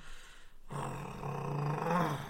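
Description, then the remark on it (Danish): A person imitates a big dog's deep, menacing growl, a sustained rumbling snarl that swells and rolls for about two seconds after a brief breathy lead-in, fairly loud with no talking. “Det lød virkelig som sådan de der kæmpe store hunde, der bare sådan...”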